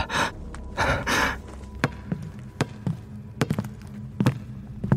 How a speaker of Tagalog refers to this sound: Bigla akong natigilan nang marinig ko ulit ang yabag ng mga paa at talbog ng bola mula sa labas ng kwarto.